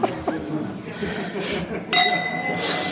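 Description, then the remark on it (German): Wine glasses clink together in a toast, a bright clink whose clear tone rings on for a moment, while people chat and chuckle around it. “Das war schön laut. Prost.”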